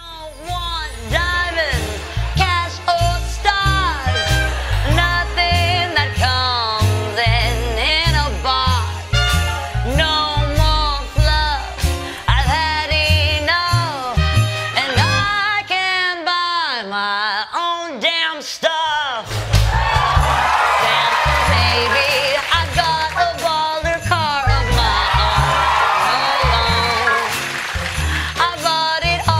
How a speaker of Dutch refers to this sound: luister ook even naar deze versie van eh, …, die … bij Jimmy Fallon zong